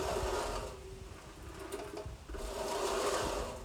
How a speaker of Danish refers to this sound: Det var altså lyden af en øh, krokketbane, der blev etableret.